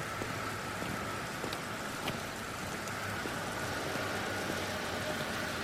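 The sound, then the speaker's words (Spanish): Steady rain falls outdoors on a street in London, a dense, even hiss with faint scattered drips on hard surfaces, continuous, with a low hum of traffic underneath and no voices. “Típico, lloviendo en Londres.”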